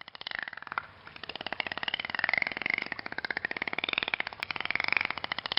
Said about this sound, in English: The clicking noises that dolphins make are part of a built in biosonar system. It's also known as echolocation. The dolphin sends out a sound wave, that click, which bounces off a solid object and echoes back to the animal.